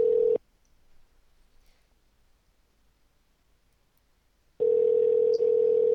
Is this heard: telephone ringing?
yes